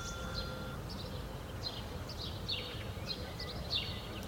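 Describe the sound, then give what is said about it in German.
Birds chirping in a park: short, high chirps recur every second or so, fairly faint, over a steady low outdoor rumble with no voices. “Vogelgezwitscher im Park, ein Spaziergang durchs Grüne, das sind wohl die besten Wege, um sich zu entspannen.”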